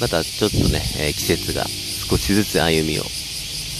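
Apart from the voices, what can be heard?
cicadas singing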